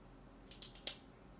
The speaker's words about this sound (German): Dafür hast du jetzt einen Kugelschreiber in der Hand, oder? Klick, klick, klick.